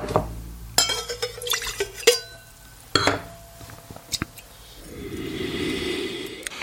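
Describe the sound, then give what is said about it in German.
Glassware clinks and knocks sharply a few times, then a steady liquid pour fills a larger glass with a rising gurgling rush for a couple of seconds. “Boah, doch, ich brauche ein größeres Glas. Hier haben wir noch.”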